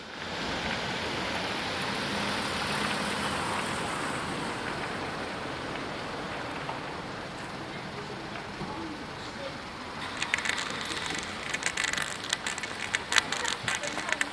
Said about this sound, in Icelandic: Og nú heyrum við hérna ská á mót okkur vinstramiðinni bíl í gangi